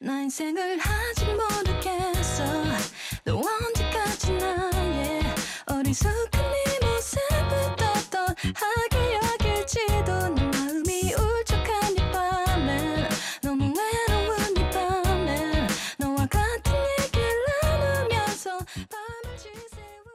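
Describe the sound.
A Korean pop song plays with a sung vocal over steady full-band accompaniment, loud and continuous from start to finish with no talking over it.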